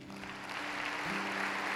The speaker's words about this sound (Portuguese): Aplauda Ele.